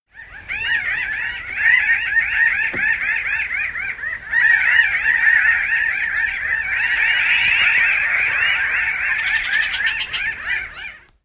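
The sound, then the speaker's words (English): A flock of pinyon jays calls continuously, many overlapping nasal, rising and falling notes forming a dense, chattering chorus that stays loud throughout, with no voices. “That would be a group of pinion jays, one of the most gregarious, understudied, and unfortunately rapidly declining birds of our local area.”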